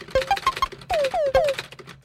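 Several quick computer keyboard clicks in an uneven burst, fairly loud, mixed with short electronic beeps and descending chirps, with no voices, as someone looks something up.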